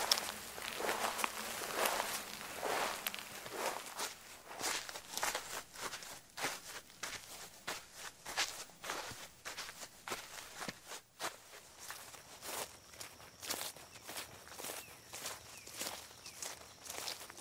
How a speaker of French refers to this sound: comme si on suivait notre invité en fait avec ses bruits de pas. Et c'est vrai que les bruits de pas c'est quelque chose de très facile à faire et je trouve un petit peu comme les oiseaux qui nous représentent vraiment les l'endroit où on est.